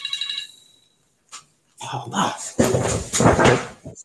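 A phone rings briefly with a bright electronic tone that fades out within a second, then after a short pause a person starts talking close to the microphone.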